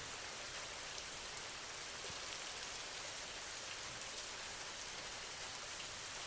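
Steady, soft rainfall with a dense, even hiss of drops pattering on a surface, unbroken for several seconds and with no voices over it.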